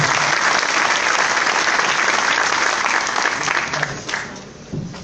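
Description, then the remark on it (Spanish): An audience applauds steadily, a dense, even wash of clapping hands that holds for several seconds, then thins out and tapers off unevenly toward the end. The applause is for two executive diamonds who gave training sessions the previous day. “Un aplauso para ellos por todo lo que hicieron”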